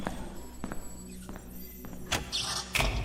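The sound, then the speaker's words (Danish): A light switch clicks on an electric lamp, one short sharp snap followed by another firmer click, over a low steady hum with no talking. “Jeg må hellere tænde lyset.”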